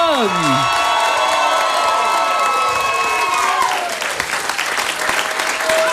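Sustained audience applause, loud and steady with crowd cheering mixed in, while a tonal whistle-like sound glides and fades early on.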